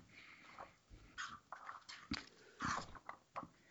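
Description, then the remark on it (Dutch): Crisp rustling and crinkling of paper as the pages of a book are turned to page 186, a few irregular bursts over several seconds with no one talking. “Ik blader verder.”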